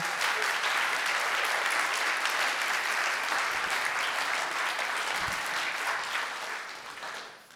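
A crowd applauds steadily for several seconds, a dense wash of many hands clapping at close range, staying loud before tapering off near the end. No voices are heard.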